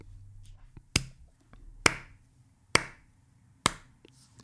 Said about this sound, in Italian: Questo applauso, eh, un applauso.